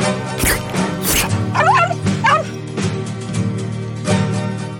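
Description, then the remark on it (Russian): A dog barks in a few sharp bursts, with high yipping whines in between, all over a steady low background hum. “Сладкий пес.”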